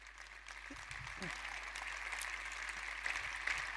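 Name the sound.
audience clapping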